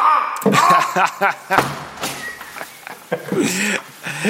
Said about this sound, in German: So, ich mache jetzt diese Tür zu und jetzt mache ich die andere Tür zu.